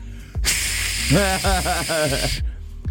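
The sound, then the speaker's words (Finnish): A person imitates the hiss of a Pepsi Max can being opened with a loud, steady sputtering 'tssss' lasting about two seconds. Voiced, wavering tones run through the second half of the hiss. “Repäsen se mun karkkipussi auki, sihautan se pepsimaksi ja siis valehtelematta neljä ihmistä.”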